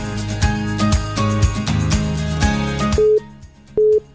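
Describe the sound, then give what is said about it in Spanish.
A telephone ringing tone from a listener's cellphone calling in sounds twice as short, steady electronic beeps separated by a pause, coming in right after a stretch of rhythmic music fades out. “¿Quién más nos timbra?”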